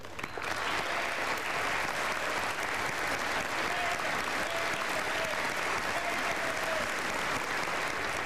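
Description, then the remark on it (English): Steady, sustained applause in the U.S. House chamber expressing gratitude to the Capitol Police, a dense wash of clapping that holds at an even loudness for the whole stretch, with a faint murmur of voices underneath. “and that was sustained applause for, certainly.”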